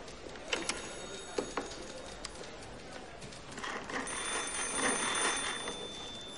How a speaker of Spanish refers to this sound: Se dirige a un escritorio, descuelga el auricular de un teléfono y gira la manivela.